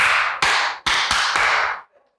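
A short burst of loud hand claps, five sharp smacks in quick, uneven succession, each ringing briefly before the next, then silence. No one speaks.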